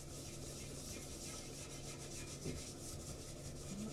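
Steady rhythmic scrubbing of a sponge against a hard surface to remove stubborn residue of a pipe-cleaning powder, a continuous gritty rubbing with repeated back-and-forth strokes and no voices; a washing machine can also be heard.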